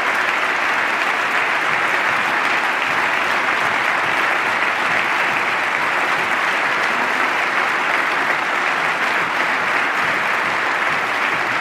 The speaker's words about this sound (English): Everybody claps on more military spending.